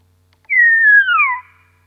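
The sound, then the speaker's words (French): A single clear bird song phrase of a local dialect variant, a pure whistled note gliding slowly downward for about a second, loud against a silent background, with no voices. “Maintenant, si on écoute un autre chant qui doit être celui-là, d'accord Je pense que vous entendez la nuance.”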